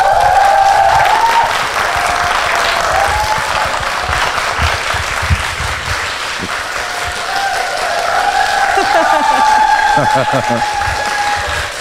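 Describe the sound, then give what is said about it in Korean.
A live audience of readers at Podbbang Hall claps steadily for about twelve seconds to welcome author Yu Si-min, a dense, even wash of applause with a few cheers and some voices mixed in. “박수부대 박수부대 동원하셨.”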